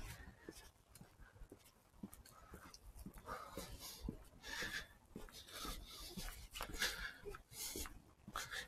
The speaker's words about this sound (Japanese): あ、犬来た。ダメだ。これじゃあ、リスは出てこない。